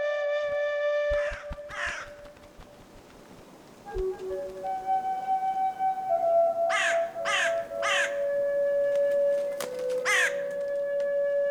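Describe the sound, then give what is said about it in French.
A crow caws in short harsh bursts, a pair early on and then a quick run of four, with one more near the end, over a steady, wavering flute-like tone. No one speaks. “Voilà ce que raconte la corneille, qui aujourd'hui joue de la flûte pour surprendre les rossignols.”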